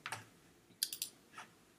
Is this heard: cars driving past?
no